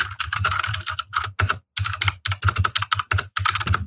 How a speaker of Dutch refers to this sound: Eh, wacht, ik moet even mijn toetsenbord goed neerzetten.